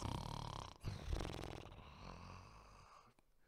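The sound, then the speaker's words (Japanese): A man's voice loudly imitates snoring, with a couple of rough, rattling snores in quick succession, alone with no words spoken. “まあ、私みたいにこんないびきはしないかもしれませんけど、イエス様はぐっすり寝てるんです。”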